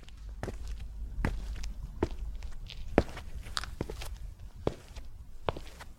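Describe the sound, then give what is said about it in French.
Footsteps climb a flight of steps on an ascent at Machu Picchu, one sharp crunchy tread after another at a steady, unhurried pace over a low rumbling background, with no voices. “Elle nous parlait beaucoup de marche, les marches à grimper et le bruit d'une marche, une marche après l'autre. Ça, ça fait vraiment un son très particulier.”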